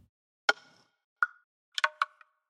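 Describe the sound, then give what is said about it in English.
Dry wooden block hits from a music track's percussion ring out alone, two separate knocks with short pitched resonance, followed by a quick cluster of clattering taps like a brief wooden rattle, clear. “The percussion is comprised of three different wooden elements, with two block sounds and a short rattle.”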